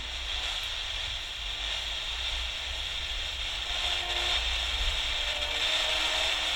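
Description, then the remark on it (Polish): A radio receiver's tuning knob being turned to gradually strengthen a station's signal: a steady wash of hissing static that grows slightly stronger, with faint tones starting to emerge through the noise partway in. No voices. “Stopniowo wzmacniam sygnał stacji.”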